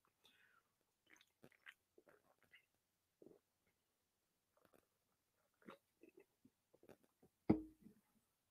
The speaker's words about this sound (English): And for those of you who may may not know what's going on here, um my job was selling um the Mountain Dew um the Mountain Dew mystery flavor right here, and it's voodoo. Let me take a sip of this before I move before I continue this thing.